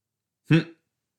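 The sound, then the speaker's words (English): A single small burp, short and voiced with a low throaty rumble, heard alone against silence. “Excuse me, I just boiped. I hit a little burp.”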